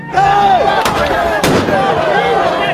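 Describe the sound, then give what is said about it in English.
Two sharp, loud explosive bangs from a crowd-control munition, about half a second apart, cut through a dense backdrop of shouting crowd noise and wavering voices. “If you do, that explosion at a face level could blind a person, it could deafen them for life, it could do both.”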